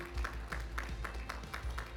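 An audience claps together in praise of the Lord in a steady, quick rhythm, the sharp claps landing about four times a second over a low, continuous rumble, with no talking.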